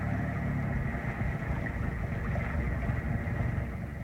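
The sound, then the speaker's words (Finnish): A motorboat engine idles steadily, a low, continuous rumble with a faint throb that holds at an even level for the whole stretch, with no voices over it. “Moottorivene. Luultavasti poliisi.”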